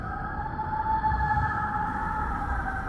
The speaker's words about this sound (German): Das Geräusch wird immer lauter und immer ärgerlicher. Ihr hört leises Quietschen noch dazu. Es hört sich an wie entfernte, leise, sehr hochtönige Schreie.